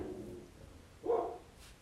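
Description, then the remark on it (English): A single short dog bark rings out partway through, against faint background murmur and no clear speech. “when the dog starts barking”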